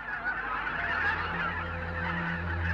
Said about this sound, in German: In Mitteleuropa zeigt sich am Himmel jedes Jahr ein beeindruckendes Schauspiel, wenn die Wildgänse laut rufend in V-Formationen von vielen Dutzend Vögeln gen Süden fliegen oder nach Norden zurückkehren.